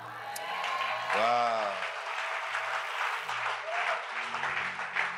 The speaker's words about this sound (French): Alléluia. Amen. Est-ce qu'on peut acclamer encore plus fort?